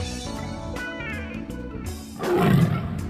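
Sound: tiger roar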